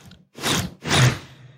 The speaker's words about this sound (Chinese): 那是飞的声音哦，你看到了没？